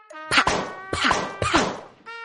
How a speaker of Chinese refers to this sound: 气球一个个被扎破了，刺猬阿兜摔了个大马趴。